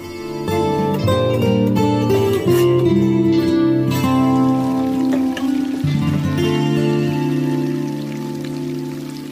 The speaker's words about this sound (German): Ihr hört das Plätschern vom Brunnen im Kreuzgang vom Freimünster in der Zürcher Innenstadt.